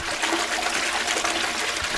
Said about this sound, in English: I'm flushing again, okay?